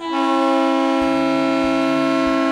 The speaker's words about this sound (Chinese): 蹦起蹦起，用长长的汽笛声告别蒸汽爷爷。